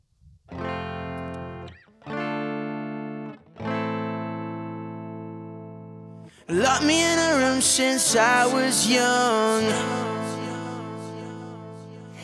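Punk rock intro: three loud, ringing distorted guitar chords, each held, before drums and a shouted vocal crash in and the full band drives on energetically.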